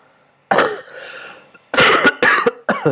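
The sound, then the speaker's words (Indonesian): A single loud cough bursts out, followed after a short pause by a rapid run of three harsh coughs, with no talking in between. “aduh maaf ya batuk”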